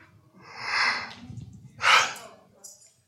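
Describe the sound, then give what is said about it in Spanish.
A person gives a drawn-out, breathy yawn, followed by a sharper exhaled burst and a faint trailing breath, with no talking. “Por ejemplo, si yo bostezara ahorita,”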